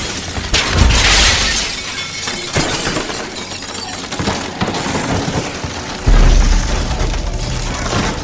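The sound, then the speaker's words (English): A loud, sustained crash of all the windows throughout a cafeteria shattering at once, with heavy booming impacts and a burst of bright, crackling debris, then a second powerful crash near the end. “All the windows throughout the cafeteria shattered at once as feral creatures swarmed us.”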